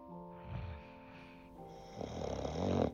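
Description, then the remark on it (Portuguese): A grandmother snores loudly, with a droning, buzzy inhale followed by a rougher, rattling snore that swells near the end. No one speaks. “Em cima dessa avó tinha um menino, um menino sonhando, em cima de uma avó roncando, numa cama aconchegante, numa casa sonolenta, onde todos viviam dormindo.”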